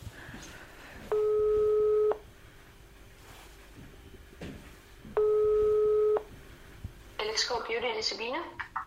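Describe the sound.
A telephone ringback tone of a call to Luksuskirurgi sounds twice, each a steady, mid-pitched, one-second buzz separated by a few seconds of quiet hiss, before a voice begins speaking at the end.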